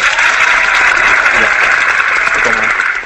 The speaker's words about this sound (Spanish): Simplemente le doy un aplauso.